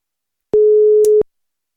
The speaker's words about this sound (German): Äh, das ist schon ein schlechtes Zeichen, wenn er nach dreimal klingeln nicht dran geht.